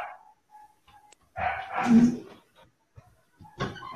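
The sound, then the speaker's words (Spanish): A dog barks in a couple of loud, harmonic bursts, one longer and another shorter near the end, separated by quiet stretches with faint background noise and no talking. “vamos a esperar que el perro ok sigan la puerta para que se escuche”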